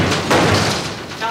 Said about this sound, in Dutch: dat is een vliegtuig. Dat is een vliegtuig. Die langskomt. een pesterijtje van de Israëlische luchtmacht. Boven Israëlisch gebied is het verboden door de geluidsbarrière te gaan. Boven Nablus doen ze het dagelijks. Meermalen.